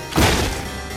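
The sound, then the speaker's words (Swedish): A door is flung open with a single loud, heavy bang, a broad thudding impact followed by a lingering rumble that slowly fades. No voices are heard. “Nu slår de upp dörren.”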